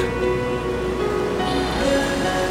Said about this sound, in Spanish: El agua que llega hacia ti deja su espuma y se va. Ahí enfrente el océano con su poder.